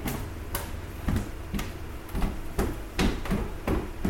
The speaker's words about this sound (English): That's the sound of him going down the stairs.